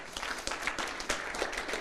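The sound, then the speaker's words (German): Audience applause for four people: a dense, steady patter of many hands clapping at once, bright and even throughout, with no voices standing out. “Hey, gib den beiden, den vier Leuten einfach mal einen Applaus.”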